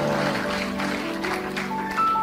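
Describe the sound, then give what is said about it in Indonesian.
A crowd claps steadily for a couple of seconds, a dense, even patter of many hands with a faint sustained tone running underneath. “Tepuk tangan.”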